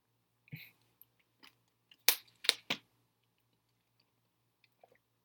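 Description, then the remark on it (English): Someone drinks water: a few short, wet gulps and swallowing clicks, clustered in the middle, with soft mouth noises and quiet pauses around them and no talking. “Sorry, sound some water.”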